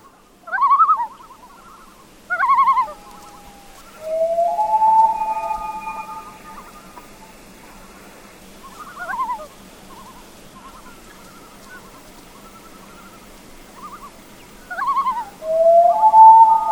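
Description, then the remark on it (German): Calls of a lone common loon ring out clearly: long, wavering wails and tremolo-like notes, repeated several times with pauses between, loud against a quiet background with no talking. “Ich fand ihn vor allen Dingen schön, weil er ja unter Umständen mit seinen seltsamen Rufen nun endlich den Winter herbeisäuselt und ins Binnenland bringt.”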